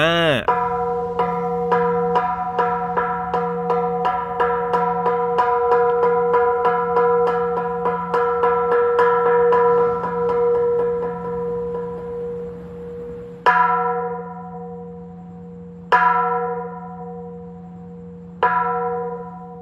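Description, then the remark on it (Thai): A temple bell is struck repeatedly at a temple in the morning, before the monks come down to chant. It rings out in a fast series of metallic clangs with long, humming overtones, then three slower, heavier strikes that each ring and fade. No one speaks. “หรือถ้าน้องๆเคยไปวัดนะครับ เคยไปทำบุญในช่วงเช้าๆใช่ไหมครับที่วัดเนี่ยเขาก็จะมีการตีระฆังก่อนที่พระจะลงมาทำการสวดใช่ไหม”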